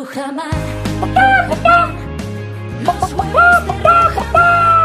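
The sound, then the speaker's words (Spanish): Free-range hens of the Rujamar egg brand cluck in short, repeated bursts over a steady musical backing, the clucks clear, arriving in two loose clusters. “Pero es que te voy a contar que además de, porque son los mejores huevos con gallinas libres y felices, hay mucho más.”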